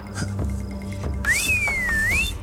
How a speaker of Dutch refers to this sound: Doordat ik ze fluit, komen de kamelen zelf weer teruglopen.